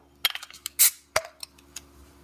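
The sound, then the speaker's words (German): A beer bottle is opened: a few metallic clicks and clinks from the cap, then a short, sharp hiss of escaping gas, followed by a couple of glassy taps. No one speaks. “Ja, Zisch ist schon mal da, sehr gut.”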